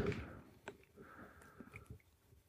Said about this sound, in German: Wolltest du dich räuspern? Mhm. Ich musste mich räuspern.